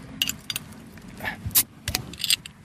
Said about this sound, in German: Ja, weiß nicht, ob man es jetzt gut hören konnte, aber so klingt das Bier, das man sich verdient hat. Prost.